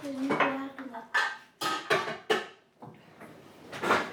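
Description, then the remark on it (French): Sharp metallic clanks of a saucepan being handled and set down on a stovetop to heat, about five or six knocks and scrapes spread unevenly over a few seconds. “Je vais faire chauffer la casserole pour une fois, sinon on va rien entendre avec la bouilloire.”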